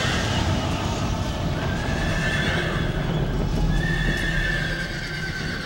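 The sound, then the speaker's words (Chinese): Horses neigh over a steady, busy clatter of hooves clopping; two drawn-out, high whinnies rise above the hoofbeats, which keep going loudly throughout without any talking. “项王殉难后，神塘湾内不时有人喊马嘶的声音传出。”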